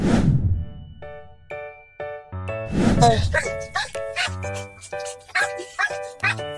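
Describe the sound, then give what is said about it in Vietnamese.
Several dogs bark loudly and repeatedly in quick, overlapping bursts, sounding agitated, with some higher yips mixed in, reacting to unfamiliar dogs from outside. “đây là những lúc mà các bạn ấy đang không thân thiện lắm tại vì các bạn ấy không quen chó ở ngoài các bạn sống ở trong gia đình rất là nhiều các bạn được tiếp xúc với người rất là nhiều nên là các bạn sẽ có một phản ứng rất là gay gắt”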